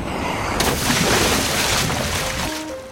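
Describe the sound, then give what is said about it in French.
An ichthyosaur swims at full speed through the waves, undulating its tail like a dolphin: loud, continuous rushing and splashing water with surges of churning spray that ease slightly toward the end. “Grâce à sa forme hydrodynamique, il se faufile entre les vagues à toute allure.”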